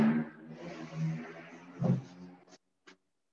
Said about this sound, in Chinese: 对不起啊，这个台北市的摩托车啊，几乎到了半夜都有的。